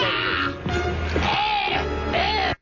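A man chokes and gags loudly on a tequila shot during a live New Year's Eve broadcast, with strained, wavering throat sounds and retching noises running for a couple of seconds over a steady background din before cutting off abruptly.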